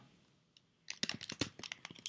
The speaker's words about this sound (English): I'm typing, my love.